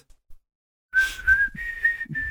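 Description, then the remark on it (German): A person whistles a steady, fairly loud high tone for over a second, broken into several short sustained blasts, imitating a shrill whistle that rings through a large hall. “Ah, oder es genau gibt so, so, die äh, Tribute vom Pfanehm-Pfiff, äh, die da durch die ganze Halle tönen.”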